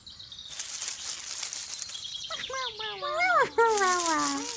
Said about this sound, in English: Can you hear the bush babies? Hmm, it sounds like there is a chicken with the bush babies.